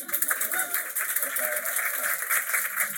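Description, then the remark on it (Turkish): An audience applauding at a live show on a Friday evening after the performer invites them to clap: a steady, dense wash of many hands clapping for about three seconds, fairly even in loudness, with faint voices mixed in underneath. “Burada önlerde yerler var alkışlayabilirsiniz abartmayın.”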